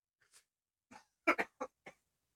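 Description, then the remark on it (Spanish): A rooster gives a handful of short, raspy squawks rather than a crow, in an irregular burst of five calls, with no one talking. “después de esta breve interrupción por un gallo. Y no hizo kikiriki.”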